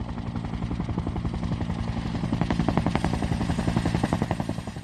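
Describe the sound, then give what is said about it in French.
A helicopter parked at an airport takes off and flies away, its rotor chopping in a steady, rapid thumping over a deep engine drone, swelling slightly louder midway and easing off a little at the end, with no voices. “Arrivé à l'aéroport, l'homme se dirigea vers l'hélicoptère qui stationnait devant. Il s'envola et disparut dans le ciel.”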